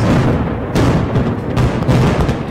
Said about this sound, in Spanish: Aún así, la mañana del 24 de mayo, Corea del Norte recibió a dos docenas de periodistas internacionales para mostrarles el desmantelamiento de parte de su central de pruebas nucleares y aquellas explosiones.